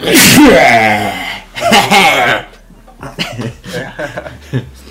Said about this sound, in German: Äh, warte, ich muss kurz niesen.